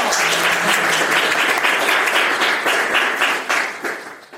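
A dense burst of applause from a crowd, many hands clapping steadily at full volume before tapering off slightly toward the end, with no voices standing out.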